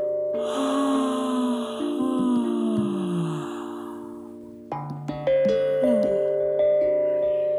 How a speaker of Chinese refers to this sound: 这是很自然的打哈欠的声音。